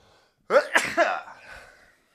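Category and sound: human body sound, sneeze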